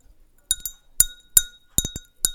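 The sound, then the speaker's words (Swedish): A long fingernail taps a drinking glass in Linköping in a quick irregular series of bright, ringing clinks, some struck in close pairs, each leaving a short high shimmer. Clear, with no voices. “Hon sitter i Linköping hos sin mamma och plingar på ett glas.”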